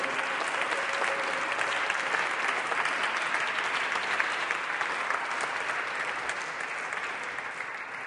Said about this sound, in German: Einen dicken Applaus für die beiden, gestern geheiratet.